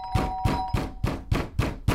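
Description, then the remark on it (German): Someone outside hammers heavily and rapidly on a door: seven loud, evenly spaced thuds in about two seconds, each a dull low impact, with a faint steady tone ringing underneath the first half. “Denn jetzt hämmerte jemand von draußen gegen die Tür.”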